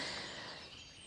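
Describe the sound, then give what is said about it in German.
Faint birdsong in the background of a forest, heard from a small forest bench during a morning walk, a soft continuous wash of high chirps and tweets with no single bird standing out and no voices. “Ihr hört das Vogelgezwitscher im Hintergrund.”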